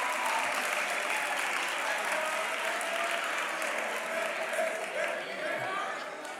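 Sustained audience applause, a dense steady wash of many hands clapping at a constant loud level for several seconds, easing off slightly at the very end.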